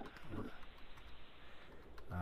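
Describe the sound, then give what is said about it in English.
Faint, scattered clicks of typing on a computer keyboard tap away at an irregular pace as a website address is typed in, against a low background hiss, with brief murmurs of a voice near the start and end. “I, am typing so that down now.”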